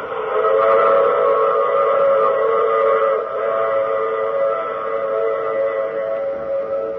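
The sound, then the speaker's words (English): A train whistle blows loud in one long, steady chord-like blast that holds for several seconds, wavering slightly partway through, with no voices. “I take this same train every week at the same time.”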